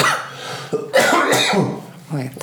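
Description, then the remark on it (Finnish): A person coughs several times in quick succession, fairly loud, with a raspy, throaty quality and a short voiced clearing at the end. “Anteeksi, kauhean tämä yskä.”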